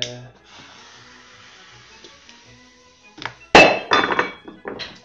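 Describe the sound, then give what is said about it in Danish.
After a few seconds of low hum, a small homemade gunpowder charge goes off with one sharp, loud, bright bang, followed by several shorter crackling, rattling bursts. “skal vi høre det der gigantbrag der? Lad os uh, få tæt for bomben”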